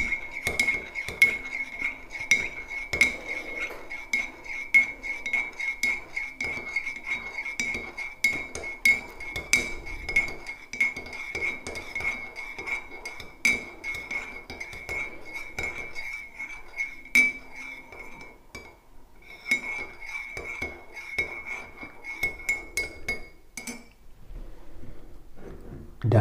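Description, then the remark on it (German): Coffee cups and dishes clink repeatedly in an irregular, busy rhythm as people get ready to drink coffee, with a steady high ringing tone running underneath for most of the time and a few sharper knocks near the end. “Dann wollen wir mal. Kaffee trinken.”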